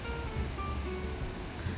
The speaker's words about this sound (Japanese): すごい波がキラキラしてて綺麗なんだよね今日